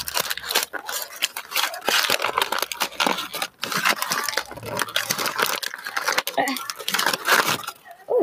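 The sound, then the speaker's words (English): Paper being unwrapped and crinkled from inside a ball, a dense, continuous crackling and rustling that lasts the whole time, with low voices murmuring underneath. “There's a paper inside of the ball.”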